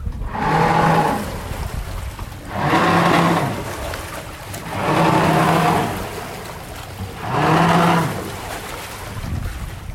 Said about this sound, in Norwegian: Og det er klart at vi har jo hjelpemidler, vi også. Sånn som denne baugpropellen her.